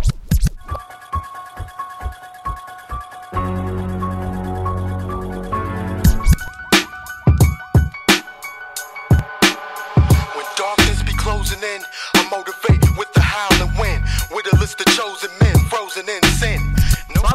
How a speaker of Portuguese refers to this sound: Ele vai transformando o piano em um 4x4 e colocando ele sobre uns tambores e cordas notas agudas, mas ele realmente mantém tudo ali, o que acaba fazendo ficar até um pouco fácil de você identificar, cara.